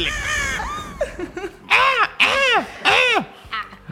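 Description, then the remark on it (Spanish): Loud, harsh crow caws ring out, several in a row with short gaps, the last few coming in a quick series of rasping, arched calls. “así que la vamos a invocar con el poder de las explosiones. Y del cuervo mágico.”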